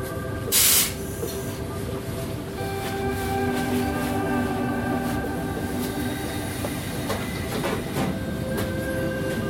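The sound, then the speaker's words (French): A train rumbles steadily, with a short sharp hiss of air near the start and high whining tones running through as it slows into Grenoble station, where the line ends. “Terminus du train. Assurez-vous de ne rien oublier.”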